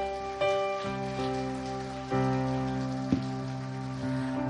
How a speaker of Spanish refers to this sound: En el nombre de Jesús. Amén y un aplauso al Señor.